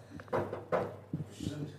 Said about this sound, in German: Ich klopf mal hier auf Kaffee Ivys Holztisch